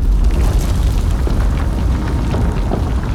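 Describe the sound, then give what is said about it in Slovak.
A deep, continuous rumble from the depths of the earth rolls on with heavy low-end power and a gritty crackling texture, like the ground groaning. It stays loud and steady throughout, with no voices. “Z hlbín zeme sa ozvedu dunenie.”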